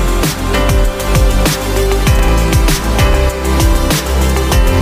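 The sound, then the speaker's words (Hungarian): The complete backing track of a new pop song being produced on a laptop plays loud and dense, with a punchy kick drum on a steady beat, crisp hi-hats, bass and layered synths, and no voices. “Mutasd, hogy ez hogy szól, jó, vagy mi az, ez, amit hallhatunk Ez egybe az alap, az alap így néz ki, és akkor utána majd szétszedjük, hogy ez hogy is épül föl.”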